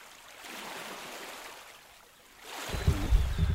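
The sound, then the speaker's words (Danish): Water laps gently at the shore in a soft, broad wash, then a louder surge of water rushes and splashes toward the end. No one speaks. “Vi også høre vand.”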